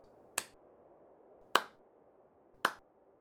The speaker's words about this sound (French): elle se frappa trois fois les mains l'une contre l'autre, donnant ainsi trois petits coups.